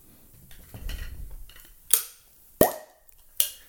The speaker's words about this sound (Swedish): Att till exempel så har han ett plopprör.